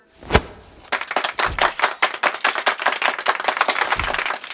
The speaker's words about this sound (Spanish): Llegado el momento, se tiró el pañuelo que revelaba el cuadro. Hubo un caluroso, calurosísimo aplauso.